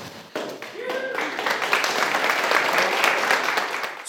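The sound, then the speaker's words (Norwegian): A crowd bursts into sustained applause with scattered cheers and whoops, the dense clapping swelling quickly and holding steady for several seconds, as Statsbygg presents on a Wednesday the projects of Team Urbis and G8+ as finalists in the architecture competition for the new government quarter. “stor jubel og mye glede da Statsbygg onsdag presenterte prosjektene til Team Urbis og G8 pluss som finalistene i arkitektkonkurransen for nytt regjeringskvartal.”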